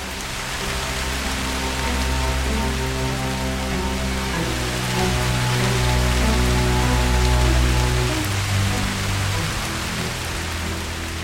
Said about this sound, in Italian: Nel tragitto dall'auto all'ingresso delle ambulanze, mi inzuppai di acqua e quella pioggia fredda e scrosciante mi fece riprendere contatto con la realtà.